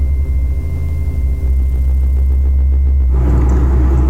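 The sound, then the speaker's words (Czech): A steady, loud low rumble of a car engine while driving slowly and carefully home from work, continuous throughout, with a faint tonal hum and a slight rise in road noise near the end. No one speaks. “Tak právě sedím v autě, jedu z práce.”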